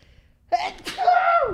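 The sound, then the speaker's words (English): A single close, loud sneeze: a sharp intake followed by an explosive burst that trails off into a voiced, falling tail. “Bless you.”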